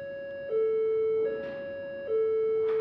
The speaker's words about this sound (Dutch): En dat is een eh, ja, eh, teken voor de kleine autospuit dat die daar naartoe gaat, want het is een hulpverlening.